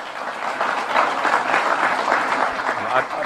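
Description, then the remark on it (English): A dense, sustained burst of applause from a large crowd, a standing ovation as Rodney Terry is introduced as the new head basketball coach, steady and loud throughout, with many overlapping claps blending into a continuous roar and faint voices mixed in. “Standing ovation from him, and an embrace from athletic director Chris Del Conte, now the new head basketball coach”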